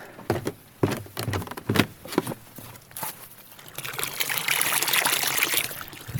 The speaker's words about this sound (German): Das, meine lieben Damen und Herren, ist meine eigene, meine private Quelle. Wie cool ist das denn? Ich habe meine eigene Quelle. Die sprudelt hier mitten aus der Bergwiese heraus in einen Holztrog.